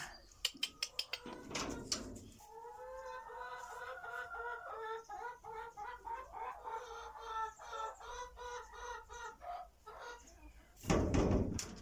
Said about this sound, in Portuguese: As galinhas, por acaso, deitam bem ovos.